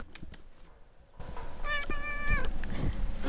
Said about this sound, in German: Oh, Moment einmal, da will eine Katze was sagen?